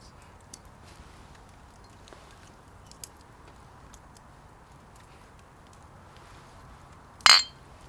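A single bright clink of glasses tapped together in a toast by three people at the Messe Chemnitz rings out near the end, following several seconds of near silence with faint background ticks and rustles.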